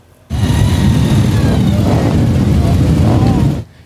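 Several motorcycle engines roar and rev at the 11th annual Distinguished Gentleman's Ride for men's health in Vancouver, many of them vintage bikes setting off from a dealership on Boundary Road. A dense, loud rumble with rising pitch sweeps holds steady for about three seconds before cutting off abruptly.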